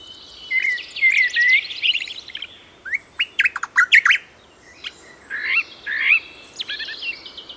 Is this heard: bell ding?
no